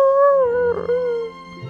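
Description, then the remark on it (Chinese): A dog named Nana whimpers in one long, mournful, despairing whine that wavers briefly midway, slides slightly in pitch, then trails off. No one speaks. “孩子们一个个撅着嘴，娜娜再度发出绝望的呜呜声。”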